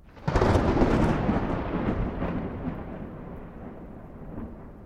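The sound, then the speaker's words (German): A loud clap of thunder breaks suddenly, then rolls and rumbles on for several seconds, slowly fading. No voices are heard. “Als Kind hat sie große Angst vor Donner und Elektrizität.”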